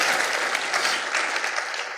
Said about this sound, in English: Anyway, thank you guys. Let's give these guys a round of applause. Thank you so much for being up here.